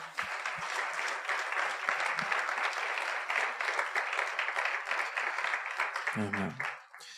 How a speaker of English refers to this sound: Why don't we give God a round of applause today?